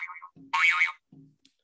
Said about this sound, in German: Ja, jetzt habe ich auch den Alarm besser gehört.